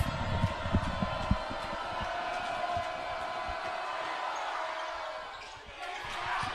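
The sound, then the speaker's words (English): A loud, steady crowd roar at a high school basketball game, with the thump of a bouncing ball and scattered shouts underneath, dipping briefly near the end. “And we'll let the crowd speak for itself.”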